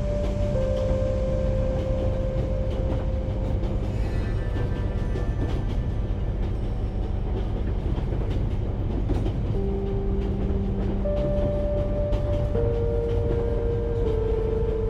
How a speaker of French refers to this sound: Le bruit de votre respiration se mêle au chuchotement régulier du train qui enveloppe l'espace autour de vous.